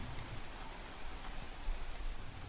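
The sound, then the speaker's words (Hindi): Steady rain patters against a long glass window on the 25th floor of Vista Business Park, a dense, even hiss of countless small drops tapping, with no voices and no break in the downpour. “Vista business park के 25वें floor पर कांच की बनी एक लंबी सी विंडो पे इन पे बारिश की बूंदें गिरते हुए मोतियों जैसे लग रहे थे”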